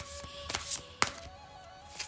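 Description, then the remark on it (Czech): Tarot cards being shuffled for a reading about a future partner: a handful of soft, irregular slaps and crisp flicks with one sharper snap in the middle, over a faint steady background hum and no talking. “A já už se dívám na vaši fotku, míchám u toho karty a my se podíváme, eh, jaká bude energie v partnerské oblasti v letech.”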